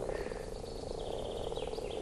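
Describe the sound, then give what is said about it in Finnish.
Male frogs croak continuously at a pond in spring, waiting for females to arrive: a dense chorus of overlapping rhythmic calls at steady volume, with no voices present. “Urokset tulee tähän näin ja aloittelee kurnutuspuuhia ja on valmiina ja odottelee, että naaraat saapuu paikalle.”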